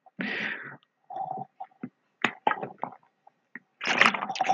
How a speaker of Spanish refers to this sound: Voy a hacer una pausa para tomar agua porque ya me cansé de hablar voy 10 minutos recién.